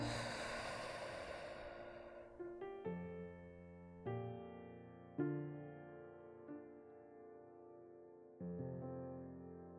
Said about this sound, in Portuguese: Comece a respirar pelo nariz e solte o ar pelo nariz ou pela boca bem devagar. Vamos juntos? Puxa o ar pelo nariz e solta.